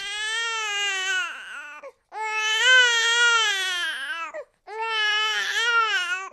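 A newborn baby gives its first cries after birth in three long, loud wailing bursts, each separated by a brief gasp for breath, with no other voices.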